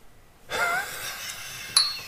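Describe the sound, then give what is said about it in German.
A single bright clink of glasses touching in a toast, with a short high ring, following a soft breathy rush of air; no one speaks. “Prost, ich trinke nicht auf Ex.”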